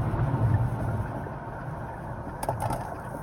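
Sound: car driving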